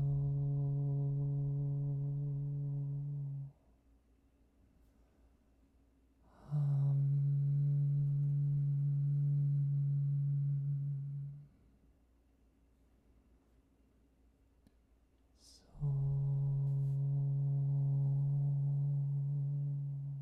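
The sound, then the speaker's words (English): A single voice chants the meditation mantra "so hum" as a long, steady low drone three times, each tone held for several seconds with quiet pauses for breath between, resonant. “So you do the breathing and I'll chant for you.”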